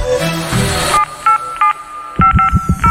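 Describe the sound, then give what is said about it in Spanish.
A quick series of telephone dialing tones, short steady beeps in an uneven rhythm, following a brief burst of music, heard clear with no one speaking. “Hay un sonido de teléfono.”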